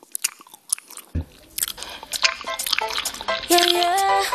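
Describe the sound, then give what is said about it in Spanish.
Wet chewing-gum smacks and clicks of a woman chewing gum in a clip widely shared on Twitter, in an irregular rhythm, growing busier and denser, with a steady tonal layer joining in near the end. “Vas paseando por Twitter y te saltan 35 versiones de la tía mascando chicle.”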